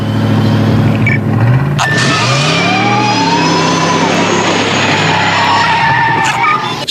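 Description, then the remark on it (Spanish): A car accelerates hard toward 140 kilometres per hour with loud, sustained tire squeals, the engine pitch rising and sweeping as it speeds up, no talking over it. “Si mis cálculos son correctos, cuando esa belleza llegue a 140 kilómetros por hora, vas a ver algo acojonante.”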